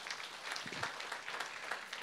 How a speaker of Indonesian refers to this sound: Boleh tepuk tangan kita buat Tuhan, saudara.